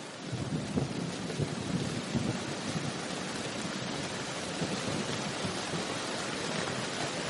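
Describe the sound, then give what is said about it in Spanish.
Heavy rain pours down in Flagstaff, where a train has just stopped, in a steady, dense roar that fills the whole clip, with a low rumble underneath and no voices. “Nuestro tren acaba de parar en Flagstaff, donde está cayendo una enorme tromba de agua.”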